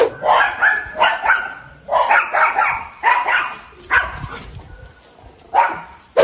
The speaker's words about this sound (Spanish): ¿Vieron, un video de un chihuahua que asusta un oso, güey?